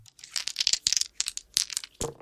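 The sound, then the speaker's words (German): A die is rolled to start a game, landing on four: a busy rattle of quick clicking and clattering bursts over about two seconds, ending in a final knock as it settles. No one speaks. “Lass uns anfangen. Du darfst anfangen mit Würfeln.”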